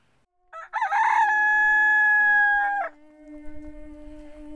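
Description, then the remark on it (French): A rooster crows once, a loud drawn-out cock-a-doodle-doo with a rising start and a long sustained high note that breaks off, followed by a faint low rumble. “Il n'y avait pas d'horloge à l'époque. Il y avait des coques.”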